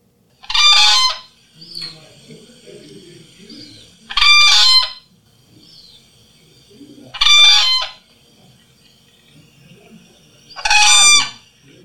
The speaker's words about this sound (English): Fun fact about their um, calls: their trachea actually coils up in their body, so it kind of makes a natural echo effect within their body, and that's why they're so much louder. So it amplifies. It. Yeah. Here's a whooping crane.